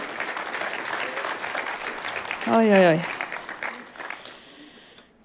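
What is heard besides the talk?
audience applause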